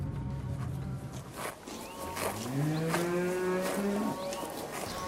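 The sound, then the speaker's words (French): A cow lets out a long, rising moo in an open pasture where cows graze, about a kilometre from a farm in Brittany, France, with other moos fainter around it, over a steady background of rustling and outdoor ambience. “Il faut prendre la route et rouler un kilomètre depuis la ferme pour rejoindre les vaches qui broutent dans les prés.”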